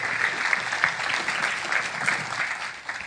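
An audience applauds steadily for a few seconds to thank a man for sharing, a dense, even patter of many hands clapping at once, without any voices standing out.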